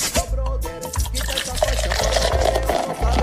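A caguama (large beer bottle) is opened and poured, a steady gurgling, fizzing stream of liquid running for a few seconds with no voices.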